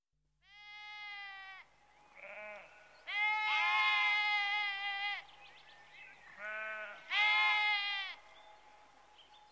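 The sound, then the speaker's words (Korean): Several sheep in a pen at the shepherds' huts bleat in turn, a run of long wavering baa calls with short pauses between, clear, some overlapping, with no talking. “둘은 양의 우리가 있는 목동들의 막사로 갔다.”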